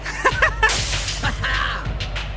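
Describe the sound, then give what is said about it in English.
Loud crashes of furniture being smashed by a rock band, with glass shattering amid repeated thuds and splintering impacts over a couple of seconds. “that's just the boys from …. They're smashing furniture.”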